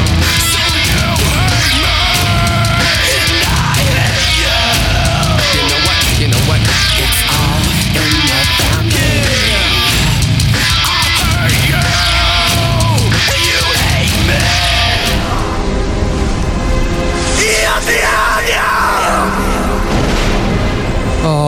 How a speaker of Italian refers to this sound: questo urlo liberatorio tutte le settimane.